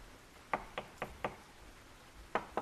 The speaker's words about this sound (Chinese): 敲门声又响了起来，似乎比刚才还急切。